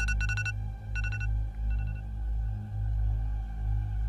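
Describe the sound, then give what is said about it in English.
An electronic alarm clock beeps in quick bursts of rapid, high-pitched pulses, the bursts repeating and then fading, over a steady low background hum. No one speaks. “You set that alarm last night. Uh, you gonna pretend like you can't hear it. Okay. It's gonna keep ringing.”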